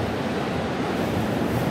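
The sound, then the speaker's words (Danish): Steady, loud roar of North Sea surf washing onto a beach, a dense rushing wash of water with no clear individual breaks, heard alone without any voices. “det voldsomme, nådesløse, magtfulde, kraftfulde Vesterhav.”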